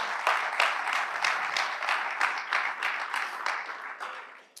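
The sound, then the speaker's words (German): A church audience applauds itself steadily, a dense wash of many hands clapping at a fairly even level for several seconds before tapering off at the end. “Ihr dürft euch gerne selber mal einen Applaus geben.”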